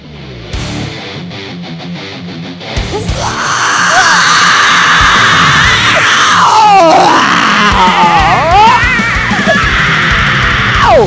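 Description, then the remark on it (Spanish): Loud metal band music plays, then a person lets out a long, raw, sustained scream that rises and falls in pitch and continues above the band for several seconds. “Oigan, el grito es mío, ¿eh? No de la banda.”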